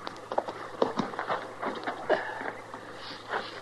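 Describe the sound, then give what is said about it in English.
Horses shift and step about at a creek where they are being watered, hooves thudding irregularly over a steady low hum and soft watery rustle, with a few sharper knocks standing out. “Let's water the horses here, Chester.”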